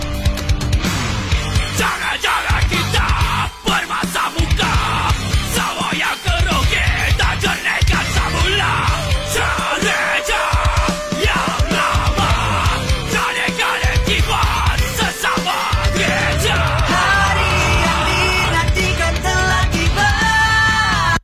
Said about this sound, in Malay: Netizen kata tak boleh terima lah lagu raya gitu. Terjerit-jerit.